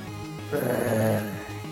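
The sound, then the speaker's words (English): A robot wolf with brilliant white shining eyes gives a single low, rumbling growl that swells for about a second and fades, after chasing off goblins and stopping in front of one. A thin, high mechanical whine rides over it, with no talking. “chased the other goblins off, tossing them around, before stopping in front of Boggis and growling”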